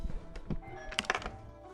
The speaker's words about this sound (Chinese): 然后我要补充一个细节，本来说的是昨天想，怎么又有人敲门？